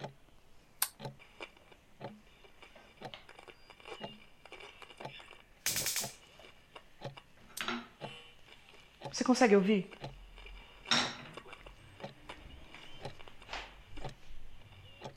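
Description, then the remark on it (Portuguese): A steady run of small, sharp ticks from a clock radio repeats throughout, with a few louder bursts and a brief spoken question partway through. “eu queria um relógio que marcasse as horas, mas o vendedor me convenceu de que eu deveria levar esse rádio-relógio. Ele marca as horas, ele disse.”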